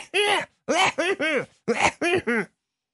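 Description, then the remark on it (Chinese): A voice imitates a barber's deliberate, attention-getting coughs: six short, voiced throat-clearing bursts in two quick groups of three, each with a rising-then-falling pitch, fairly loud, with brief pauses and no other talk. “师傅就跟这咳嗽啊，这个，哎，看这儿，拿手啊暗暗指自己一口袋。”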